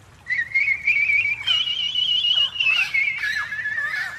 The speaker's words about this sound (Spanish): Ah, es Loreta, la vieja lora que trajo mi abuelo hace muchos años. Ya casi nunca silba.